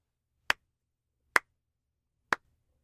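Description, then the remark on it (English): Three slow, sharp hand claps ring out one at a time in a silent, dimly lit lab, each crisp, with roughly a second between them. “He walks in, and like the crack of a gunshot cutting through the silence that hung heavy over the rest of the building, he hears clapping.”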